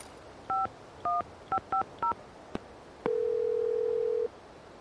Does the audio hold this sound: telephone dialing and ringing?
yes